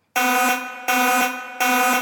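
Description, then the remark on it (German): A loud, harsh alarm buzzer blares in three sustained bursts, each about three-quarters of a second long with a brief gap between them, with no voices. “Spoiler-Alarm.”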